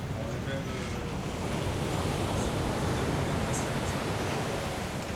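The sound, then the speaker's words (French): A steady, loud roar of storm-driven waves and howling force 11 Beaufort wind at sea, heard aboard a rocking boat, with waves nearly 8 meters high; a dense wash of noise that never lets up, with the surge of surf rising and falling throughout. “Euh, c'est force 11, donc c'est la force la plus haute qu'il y a sur l'échelle Beaufort, c'est pour estimer le vent. C'est des vagues quasiment de 8 mètres.”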